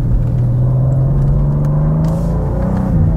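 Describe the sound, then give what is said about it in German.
A sports car engine drones with a deep, steady rumble and faint exhaust burble as the driver lifts off the throttle and the revs shift slightly, continuing without any voices for a few seconds. “Beim Runterschalten oder vom Gas gehen gibt es so ein Auspuffbrabbeln.”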